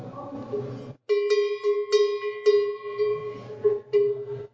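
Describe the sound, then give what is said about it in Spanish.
A picote livestock bell is shaken after a brief rustle, giving several irregular metallic clanks whose bright, ringing tone sustains between strikes. “Ese es un, ese es un picote que, que le llamamos.”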